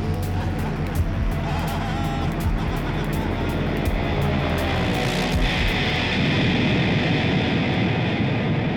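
A loud, dense roar of an airplane about to crash, swelling continuously and growing harsher toward the end, filling the whole clip with no voices.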